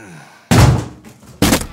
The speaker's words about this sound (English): The door bursts open.